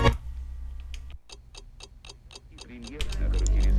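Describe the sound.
A clock ticks steadily, about seven crisp, evenly spaced ticks over a low rumble, before a voice and fuller sound swell in at the end.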